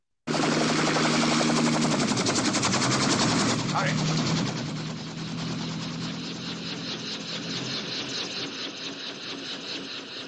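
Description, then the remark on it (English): A helicopter approaches, its rotor chopping in a fast, steady pulse, loud throughout, with the engine whine filling the background and easing slightly toward the end. “Then we hear a helicopter approaching, and it is bringing Klebb to Spectre Island here.”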